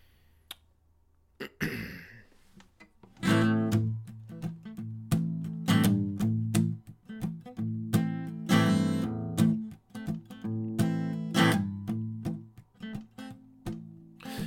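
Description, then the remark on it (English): Live country song performance in Nashville, Tennessee: after a quiet moment and a brief scratchy noise, a loud sung vocal enters over steady instrumental accompaniment, continuing with phrases and short pauses. “or you can hear my version right now.”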